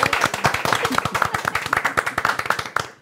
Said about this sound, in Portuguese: Uma salva de palmas, senhoras e senhores.